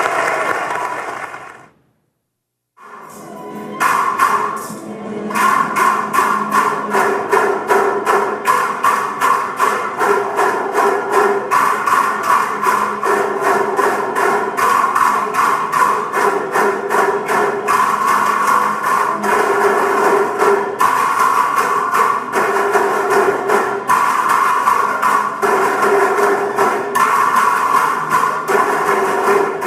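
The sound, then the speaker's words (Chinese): An audience breaks into warm applause after a brief silence, many hands clapping in a dense, steady patter that stays loud and even for nearly half a minute, with no voices. “好，我们再次用热烈的掌声来欢迎他们。”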